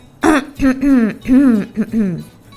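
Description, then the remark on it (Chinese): A voice gives a run of about five loud, voiced coughs in quick succession, each a short throaty burst with a falling tone, like staged coughing or throat clearing, with no other talk; the coughing is by the character called the chairman in a story. “董事长话还没说完，就开始咳嗽了。”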